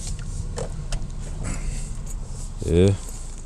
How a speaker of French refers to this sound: Et là, je sens de l'agressivité, là. Je sais pas si vous l'avez entendu, là. Quand quelqu'un pèse sur un criard plus que 1,5 secondes, c'est parce que. C'est une, manifestation de mépris.